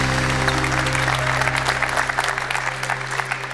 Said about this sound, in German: begleitet vom Applaus und der Musik